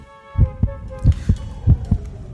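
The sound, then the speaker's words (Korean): A fast, racing heartbeat sound effect pounds out deep paired thumps in a steady quick rhythm, prominent, with a faint sustained hum lingering underneath, depicting a man's heart rate soaring as attention and kindness are shown to him. “자신에게 쏟아지는 관심과 친절을 받으면 숨통이 조여오면서 심장 박동수가 미친 듯이 올라가지 형.”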